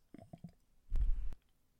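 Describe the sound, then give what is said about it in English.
Beer is poured into a glass, two thirds of it at first, in a short, low, gurgling burst lasting under half a second, after a few soft knocks and clinks. “Right, so I'm going to pour two thirds.”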